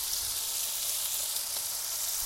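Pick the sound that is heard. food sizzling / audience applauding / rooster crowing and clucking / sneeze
food sizzling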